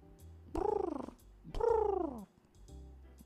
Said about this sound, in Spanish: Las escuché dialogar unos minutos. Yo no entendía nada de lo que estaban diciendo. Solo escuchaba, ya saben, ruidos de paloma.